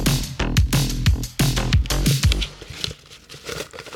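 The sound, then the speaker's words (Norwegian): Paper slips bearing audience questions rustle and crinkle inside a bucket being shaken in a quick, uneven rhythm, with several sharp swishing bursts up front that trail off into softer, scattered shuffling. “This is a nice little shake av Spøtta, som bare er en bøtte med deres spørsmål, rett og slett.”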